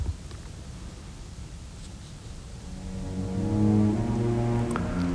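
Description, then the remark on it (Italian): Orchestral bowed strings swell from a murky low rumble into sustained, layered, snaking tones, growing steadily louder and more intense toward the end in a restless, feverish crescendo leading to the return of the theme. “per invece far ascoltare un bellissimo uh, serpeggiare progressivo di archi, febbrile e increscendo, che questa volta riuscirà a arrivare alla ripresa tematica, ma non sarà il punto d'arrivo dell'intero movimento.”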